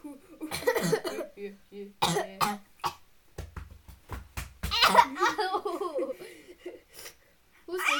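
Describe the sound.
Several sharp, close coughs burst out in a loose cluster, mixed with bouts of laughter and brief voices around them.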